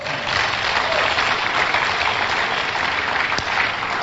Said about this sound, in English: Please be seated. Clap for the Lord.